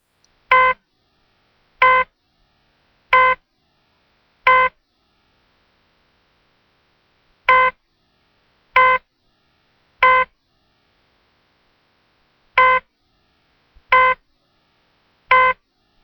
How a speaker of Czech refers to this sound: Ano, ukázka je výraz velmi nadsazený. Správně jste slyšeli jen zvuk monitorující činnost srdce a ty mezery.